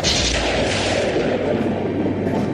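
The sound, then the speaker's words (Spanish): A deep, rolling rumble of thunder from an approaching storm fills the whole moment, loud and sustained with a heavy low-end roar and a slight fade toward the end, with no voices present. “Esta tormenta puede causar destrozos en mi reino.”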